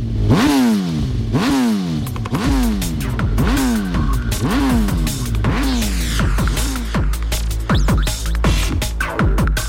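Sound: motorcycle engines revving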